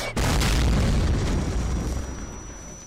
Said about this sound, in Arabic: وبعد سته اشهر من هذا العام وقعت حادثه تعتبر هي الاشد ماساه ودمارا في تاريخ البشريه قصفت الولايات المتحده الامريكيه بواسطة طائرة بي 29 مدينة هيروشيما بقنبلة نووية